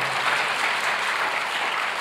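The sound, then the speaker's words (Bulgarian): Steady audience applause fills the whole stretch, a dense, even wash of many hands clapping at a consistent loud level, with no voices standing out over it. The applause is given as an offering to God during a sermon. “О, ако вярваш в това, дай му дарение на ръкопляскане, като че наистина вярваш.”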